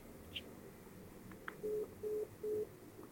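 A phone line's disconnect tone after the called person hangs up on a reporter's call: three short, identical mid-pitched beeps in steady succession, preceded by a couple of faint clicks over quiet line hiss.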